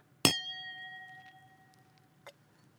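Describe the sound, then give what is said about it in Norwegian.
A single bright clink of wine glasses touching in a toast, leaving a clear ringing tone that fades over about two seconds, followed by a faint second tap near the end. “Skal vi skåle litt sånn før vi tar det? Oh, den var fin.”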